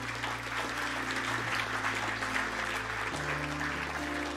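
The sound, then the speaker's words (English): Sustained applause from a sizable crowd fills the space, a dense steady wash of clapping at even loudness throughout, with a low hum underneath and no clear voices standing out. “One more time, give it up for all those people.”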